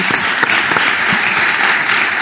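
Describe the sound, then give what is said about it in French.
Audience applause for Stéphane Dallier, director general of Nexity Immobilier Résidentiel, fills the whole moment. It is a dense, steady wash of many hands clapping at once, loud and sustained with a bright, crackling texture and no voices on top. “Applaudissements pour Stéphane Dallier.”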